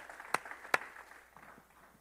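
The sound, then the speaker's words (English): Two sharp hand claps ring out in quick succession, followed by a few faint, scattered claps trailing off, given in praise of Jesus Christ during a sermon. “Let's give him a hand clap right there.”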